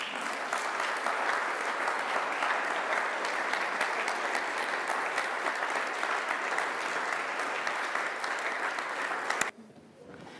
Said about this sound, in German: Und deswegen äh, warten im Hintergrund jetzt schon einige Mitarbeiter, um uns mit einer kleinen Modenschau zu überraschen. Begrüßt mit mir mit einem warmen Applaus die erste Person, die neu eingekleidet ist.